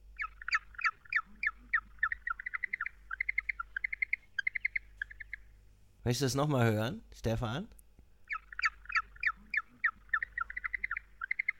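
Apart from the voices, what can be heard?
duck quacking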